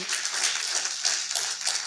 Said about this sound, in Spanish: Amén, denle fuerte aplauso al Señor.